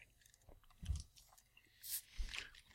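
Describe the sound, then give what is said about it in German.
Chewing with a few crunchy bites, wet mouth sounds and soft clicks coming in irregular bursts, with no one talking. “Entschuldigung, ich bin gerade noch, ich bin gerade noch am Essen.”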